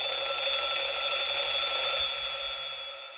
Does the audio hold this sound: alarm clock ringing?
yes